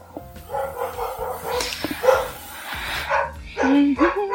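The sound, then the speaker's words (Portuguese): A neighbor's dog barks and yips repeatedly in short, uneven bursts, the sound carrying over a low background hum, with a voice faintly mixed in. “Tá igual aqui em casa, só que é, ó, o cachorro do vizinho. Ele, ele ouviu que eu liguei o microfone aqui.”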